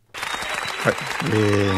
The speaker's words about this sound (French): Voilà, j'applaudis.